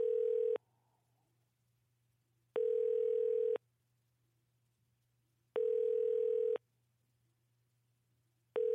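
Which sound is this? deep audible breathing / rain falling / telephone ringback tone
telephone ringback tone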